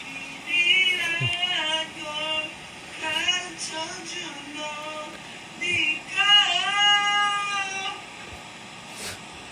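A voice sings loud, wavering sustained notes in several uneven phrases separated by short pauses, with pitch sliding up and down, a neighbor singing heard through the wall of a hotel room at night while packing for a trip, recorded as a voice memo.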